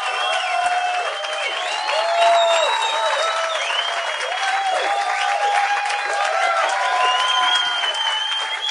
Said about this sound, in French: J'aimerais qu'on donne bonne main d'applaudissement aux gars qui sont ici. J'aimerais qu'ils viennent sur scène.